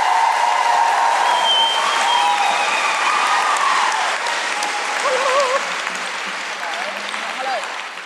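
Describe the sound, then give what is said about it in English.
An audience claps steadily and loudly for Rose Matafeo, with scattered whoops and cheers rising above the dense applause, which slowly thins and softens toward the end. “Please put your hands together and make wonderful guilty feminist noises for the fantastic Rose Matafeo.”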